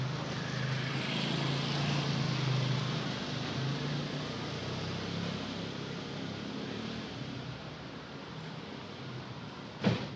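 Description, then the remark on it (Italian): The engine of city bus number 13 in Bologna drones steadily, a low rumble with a broad wash of mechanical noise, ending in a sharp clack like doors shutting. “Questo rumore è un rumore dell'autobus 13.”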